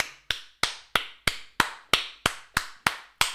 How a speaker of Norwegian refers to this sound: Sånn, sånn klapping.